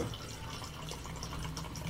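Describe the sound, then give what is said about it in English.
Liquor pours steadily into a shot glass, a continuous trickling splash lasting about two seconds with no one speaking. “Can you pour me a shot? We're going. Tell me when to stop so you don't cry about it.”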